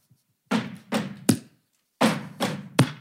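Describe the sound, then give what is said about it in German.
Body percussion played alone in two matching rounds of three beats: two dull, heavy thumps followed by a sharper slap, with a short pause between the rounds and no voices. “Yes, wir haben Percussion bekommen.”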